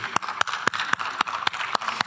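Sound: hand clapping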